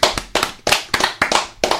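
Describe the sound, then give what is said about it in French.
Short burst of applause on a radio show, celebrating a feat: about seven sharp, loud hand claps in a steady, fairly slow rhythm, with no voices over them. “Je pense qu'on peut applaudir l'exploit.”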